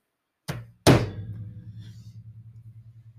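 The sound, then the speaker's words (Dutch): A horse-drawn cart tips over after the startled horses rear, with a loud crash: two heavy, clattering impacts in quick succession, then a low rumbling, wobbling resonance that slowly fades out. No voices. “De paarden stegen Oei, de kar valt om.”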